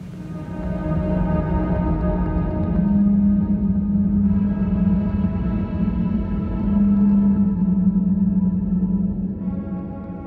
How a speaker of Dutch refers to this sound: En we gaan naar de uitgestrekte open oceaan.